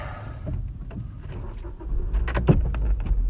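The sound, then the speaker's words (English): Keys jingle and click, then the driver presses the clutch and a manual car engine cranks and catches into a steady low rumble, loud, with no one talking. “Gotta put your foot on the clutch to start your car.”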